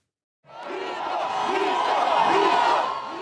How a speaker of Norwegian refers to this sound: Myto, legende, roper tilhengerne til høyrepopulisten Jair Bolsonaro.